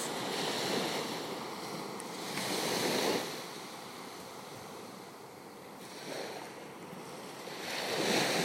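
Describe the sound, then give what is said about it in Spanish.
Gentle waves of a calm sea wash onto a sandy shore at sunrise in soft, broad swells, rising and falling every few seconds with a steady hiss of surf between them and no voices. “El mar está tranquilo, pero logras escuchar las olas.”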